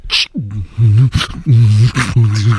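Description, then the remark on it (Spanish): Loud beatboxing: sharp, hissy snare-like bursts from the mouth alternate with deep, wobbling, buzzy bass tones in a steady rhythmic pattern, with no talking. “Porque ese es un beatbox, dice. Ganó un concurso de beatbox.”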